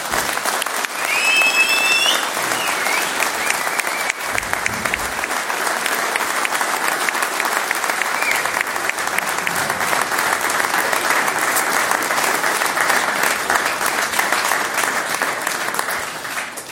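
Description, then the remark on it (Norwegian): Sustained audience applause for the board of Norges Eier og Fisk, a dense steady wash of many hands clapping at an even loudness for the full stretch, with a brief high whistle early on and no speech. “Og så sier vi til dere som sier sånn, stor applaus til styret Norges Eier og Fisk.”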